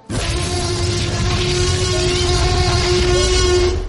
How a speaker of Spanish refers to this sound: Así que eh, querido Fricotote, abre bien las orejas, esto no te lo puedes perder, mientras yo voy a encender la alarma de spoilers.